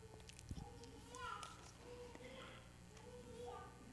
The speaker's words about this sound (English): Oh, wouldn't you rather listen to her? I don't know if those of you in line can hear this sweet little toddler who is, she's crawling around and she is talking up a storm.